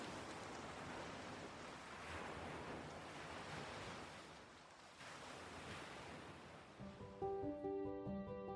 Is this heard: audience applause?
no